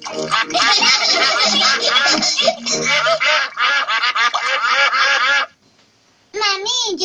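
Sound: ducks quacking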